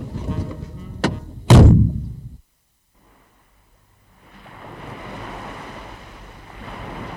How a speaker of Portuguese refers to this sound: Nesta iluminada noite de luar, o ambiente no porto era calmo. A interromper o silêncio, apenas o mar, um navio ao longe e o som que se escapa dos bares. Faz frio e cai geada,